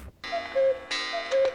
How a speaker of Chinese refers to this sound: 早八点的闹钟准时响起